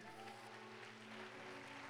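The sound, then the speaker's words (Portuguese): An audience in a church claps steadily and continuously, a dense wash of applause from many hands, with a low sustained musical hum underneath and no voices. “Nesta hora, receba o vigor do Senhor para se levantar em o nome de Jesus Cristo aplaudam aqui nessa igreja.”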